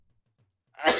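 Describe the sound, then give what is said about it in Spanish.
A single sudden, loud sneeze bursts out after a near-silent stretch, sharp and breathy, ending abruptly. “Salud.”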